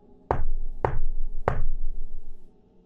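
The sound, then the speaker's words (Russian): Three firm knocks on a wooden front door, evenly spaced about half a second apart, fairly loud with a dull resonant thud, followed by quiet room tone. “три раза постучал во входную дверь.”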